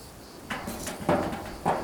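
One of several large, heavy old doors at a building entrance is pushed open with a few scraping, creaking surges, each louder burst rising and fading, with no voices.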